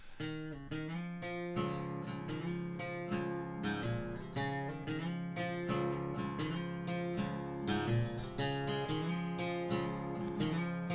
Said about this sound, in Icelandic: Einmitt, þetta er gítar úr hljóðfærhúsinu